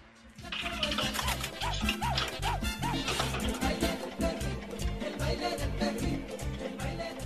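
An upbeat dance track plays loudly with a steady pounding bass beat, and a short run of repeated bark-like yelps rises over the music early on.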